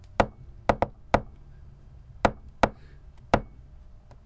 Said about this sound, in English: I mean, uh, it, how many it's... how many taps for yes and how many taps for no?